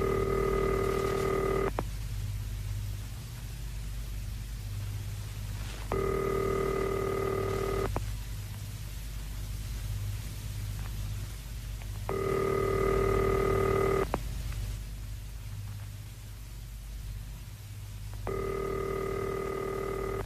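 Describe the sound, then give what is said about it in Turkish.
A telephone ringback tone sounds four times, each steady burst lasting about two seconds with roughly four-second pauses between, over a faint low hum and no voices. “Numarayı bağlayayım bakalım.”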